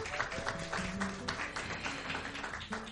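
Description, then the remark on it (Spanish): An audience applauds, a dense, steady wash of many hands clapping at an even loudness throughout, with no one speaking over it. “Un aplauso a la gestión del equipo de trabajo.”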